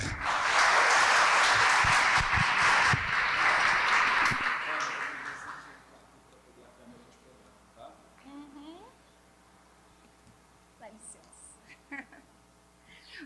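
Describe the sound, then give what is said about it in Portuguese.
A burst of audience applause at the Templo Estrela do Oriente, welcoming the afternoon's lecturer, dense and steady clapping for about five seconds, then fading out into quieter shuffling and a few faint voices and murmurs. “mas como também pela nossa querida irmã, que hoje será nossa palestrante, e para quem eu peço os aplausos,”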